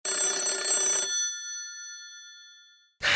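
telephone ringing

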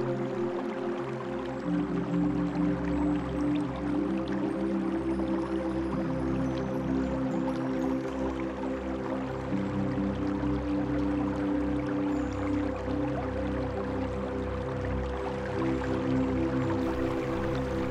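babbling stream water

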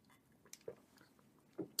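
sipping water

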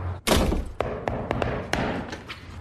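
door being shut

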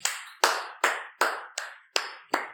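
hand clapping

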